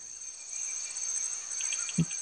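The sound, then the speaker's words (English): A continuous, dense nighttime chorus of tree frogs trilling at high pitch in a jungle, with night birds and a few short repeated chirps near the end and one soft low thump; no voices. “Night birds, tree frogs.”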